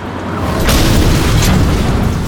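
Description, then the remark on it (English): A tank shell slams into the turret with a loud, deep boom, a sharp crack at the onset and a second burst partway through, then a heavy low rumble that holds to the end. “Baby gunned the tank back, but then another round slammed into the turret.”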